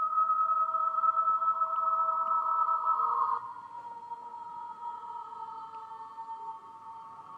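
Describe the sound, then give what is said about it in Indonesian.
A motorcycle engine whines steadily outside at moderate loudness, holding a droning tone before dropping quieter and lower partway through as it moves off. No one speaks. “aduh motor lewat”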